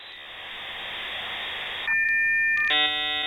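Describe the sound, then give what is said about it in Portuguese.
A burst of steady hiss gives way to electronic beep tones of a five-second call tone: first a pair of sustained tones, then a rich multi-tone chime at the end, clear with no talking. “Atenção para o toque de 5 segundos.”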